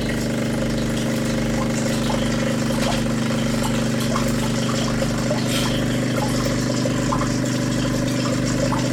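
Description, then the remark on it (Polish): A coffee machine runs its descaling cycle with water and acid, giving a steady, droning mechanical hum with a low, regular pulsing throb underneath and faint hissing noise above, continuous throughout with no talking. “ten ekspres właśnie jest odkamieniony.”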